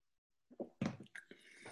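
Someone takes a sip of water: a few short, wet slurping and swallowing sounds in quick succession, with no talking.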